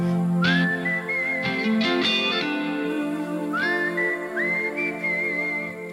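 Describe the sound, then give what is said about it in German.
A person whistles a short melody of sliding, held notes, clear, with quick rising swoops into each phrase over a faint steady background tone. “Du kannst riecht richtig gut pfeifen.”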